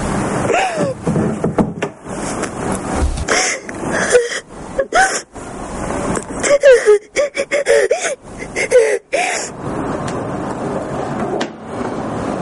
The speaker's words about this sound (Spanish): El joven entra en el dormitorio y ve a Kika llorando en la cama. Cierra la puerta y la deja a solas.